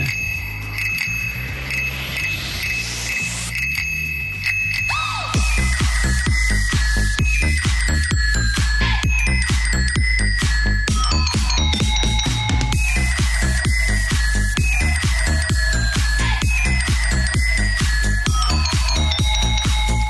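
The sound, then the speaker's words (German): Bright, metallic bicycle bell rung by a radio presenter, repeating in a fast rhythmic pattern, layered over a steady, punchy beat like a musical jingle, loud throughout with no talking. “Als Radiomoderator läutet man doch ein bisschen anders.”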